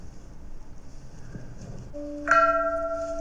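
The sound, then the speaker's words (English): A large peace bell at a shrine is struck, its deep, resonant tone swelling and ringing on steadily after a softer rising hum, over faint outdoor background and scuffing footsteps. “So you've got two peace bells, and also you can ring a bell in the uh, in the shrine.”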